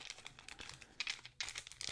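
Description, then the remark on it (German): Plastic dice packaging crinkles and rustles continuously as dice are put back into it, with a brief pause before a louder burst of crackling resumes. No one speaks. “Ich tue es mal schnell wieder ein.”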